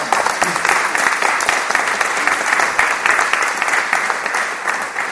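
Steady, dense applause from a crowd, many hands clapping at once in a continuous rush that holds at a fairly loud level for the whole stretch, with no talking over it.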